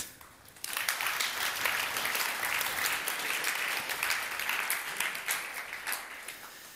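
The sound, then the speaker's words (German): Audience applause swells in after a brief quiet moment, a dense, steady wash of many hands clapping that holds at an even level for several seconds before starting to thin out. “Komm, geben denen Applaus.”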